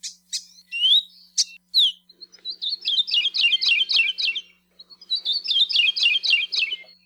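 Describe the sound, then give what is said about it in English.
A Kiwikiu (Maui parrotbill), a stoutly built green and yellow bird, sings: a few sharp opening chirps, then two rapid, rhythmic runs of clear repeated notes, bright with no talking. “These stoutly built green and yellow birds rarely sing, but when they do, it's the best way for biologists to detect them.”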